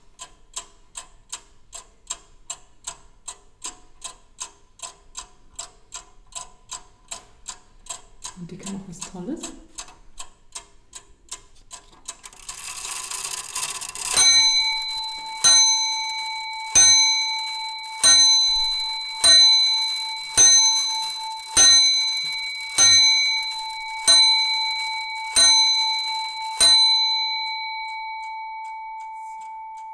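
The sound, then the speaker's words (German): An antique clock with a lion's head on its front ticks steadily and rapidly, then strikes the hour with a bright bell about ten times in an even rhythm, each chime ringing out with a long shimmering decay. No one speaks. “Noch schneller als die Prager astronomische Uhr läuft die Löwenuhr, die ihren Namen von einem Löwenkopf hat, der sie an der Stirn schmückt und der beim Stundenläuten sein Maul öffnet.”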